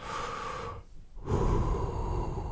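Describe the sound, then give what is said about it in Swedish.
A voice imitates the ugly breathing sound effect added to a woman's breathing in a film: a loud, noisy inhale, a brief pause, then a heavier, rushing exhale, with no speech. “Ja, och så, och så, och så är det också de har lagt på sådana fula ljudeffekter när hon andas.”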